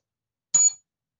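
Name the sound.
small bell being rung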